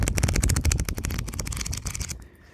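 Pages of a printed paper book, one edited by Lukas Boch and Anna-Clara Falke, being riffled quickly, a dense, rapid fluttering of crisp papery flaps lasting about two seconds before trailing off into quiet.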